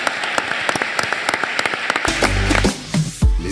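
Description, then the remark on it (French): An audience at the close of the Assises de l'immobilier de Metz 2021 applauds, many hands clapping in a dense, steady patter for about two seconds before the clapping thins out beneath a low, sustained humming tone. “Sous vos applaudissements, merci.”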